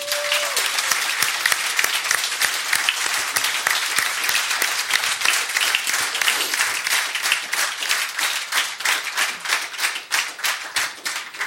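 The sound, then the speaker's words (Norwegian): An audience applauds steadily at an evening event, giving the hosts who invited the performers a thank-you round of applause. Many hands clap in a dense, crackling wash that holds at an even, fairly loud level throughout. A faint tone sounds briefly at the start. “Vi må si tusen takk til Ikkerarstuna og Liv Martan som inviterte oss, og gi dem en liten applaus.”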